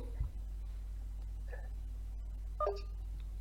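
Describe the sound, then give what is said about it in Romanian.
A phone call being hung up, with a couple of brief electronic keypad tones sounding a second apart over a steady low hum, fairly faint and with no talking. “poți să-ți închizi apelul tău. Eric, închide de pe telefonul tău.”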